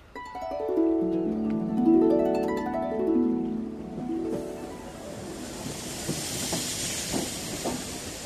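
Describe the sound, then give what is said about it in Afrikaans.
A steam train at a station whistles with a long harmonic blast, then a loud, steady hiss of escaping steam takes over, with faint clanks beneath it, without speech. “Roer jou litte matroos, sê Just Nuisance en hy spring op die trein.”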